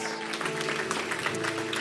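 An audience at a church service applauds steadily and briefly, a dense wash of many hands clapping at an even level throughout, with a soft sustained musical tone underneath.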